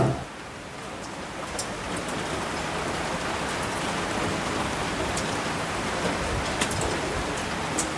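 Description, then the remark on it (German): Steady rain falls at night on tents in a dense, even hiss, with occasional sharper drops tapping on a surface. No voices, just the continuous downpour throughout. “Es hat geregnet in der Nacht.”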